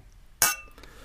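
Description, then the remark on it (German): A single bright clink of beer glasses knocking together in a toast, clear, with a short ringing tail and a faint second tap just after, no talking. “Und ach, guck mal, da kommen schon die Biere. Äh, erstmal anstoßen, ne?”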